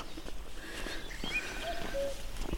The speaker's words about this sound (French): Et le coucou s'exprime.